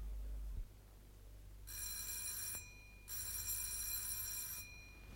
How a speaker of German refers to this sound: Wenig später klingelt Martins bei Dr. Winkel.